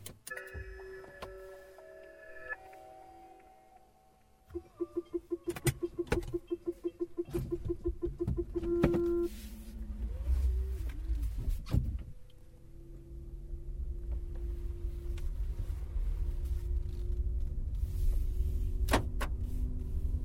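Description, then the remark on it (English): The Zoe electric car's synthetic sci-fi warning sound: layered humming tones, then a stretch of rapid rhythmic pulsing, settling into a steady low drone with faint airy swells. No one speaks. “I've recorded the sound of the Zoe. This is what it sounds like.”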